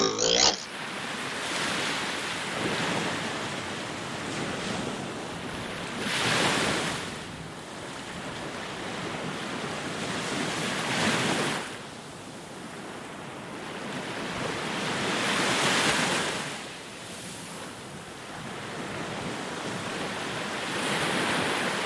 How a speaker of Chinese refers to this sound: 这个呃，是我之前到那个澎湖的望安这个地方，然后所录到的海边的声音。 哦，望安的海浪声。